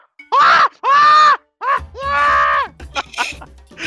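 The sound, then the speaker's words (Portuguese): A person's voice imitates a frightened little monkey, Robertinho, screaming on seeing a crocodile: two loud, shrill shrieks, a long wavering cry, then a few shorter excited yelps trailing off. “ele grita, ele grita e se afasta.”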